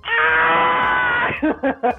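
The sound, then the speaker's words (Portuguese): Tom's classic cartoon cat scream: one long, loud, strained howl held for over a second, then three short, choppy yelps in quick succession, heard alone. “Eles mantiveram aquele grito clássico do Tom, né?”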